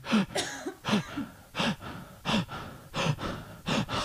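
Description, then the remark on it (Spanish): A person imitates the labored, gasping breathing of a dying 15-year-old female dog lying on the floor: about seven harsh, raspy gasps in a steady, heaving rhythm, fairly loud, with no talking. “Me mandan un video, la perra está boqueando, una respiración”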